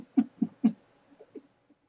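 A woman's voice imitates cat meows: three quick, fairly loud mew-like bursts in a row, then a few softer, fainter ones trailing off, with no other talking.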